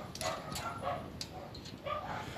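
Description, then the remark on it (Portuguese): Six dogs bark in short, overlapping bursts, mixed with high whimpers and yips, steady throughout, with no voices, at a house. “Que esse monte de cachorro.”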